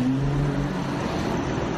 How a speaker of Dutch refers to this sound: Maar hij rijdt dus met een BMW M5 door de straten van Rome. Even, even luisteren, want er is ook een geluid van.